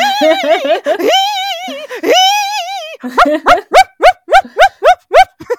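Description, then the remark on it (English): A person vocally imitates a dog's anxious whining and yelping as it hangs at the edge of a dock while its people swim in a lake, starting with drawn-out wavering whines and then breaking into a quick series of about eight sharp, rhythmic yips, loud. “anyways and then they start swimming up the lake and the dog follows along the shoreline making these noises like all the way”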